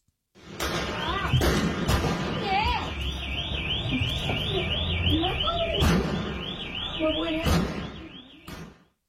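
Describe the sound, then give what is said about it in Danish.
Several sharp, loud gunshots crack out at irregular intervals, some in quick succession, as military personnel in cars driving around fire at civilians' homes, over a steady warbling alarm-like tone and a rumbling background of street noise. “I videoen der kan du så høre, øh, det er biler, der er fyldt med militærfolk, der altså kører rundt, og de her skud, det er altså nogen, der bliver skudt mod civiles hjem.”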